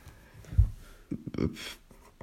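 A pen scratches across paper in a few short, quiet strokes, with a soft scribbling hiss at the end and no one talking.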